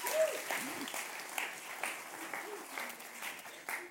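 An audience claps steadily for a few seconds, thanking a woman who set things up, a dense patter of many hands at moderate loudness, with faint voices murmuring underneath.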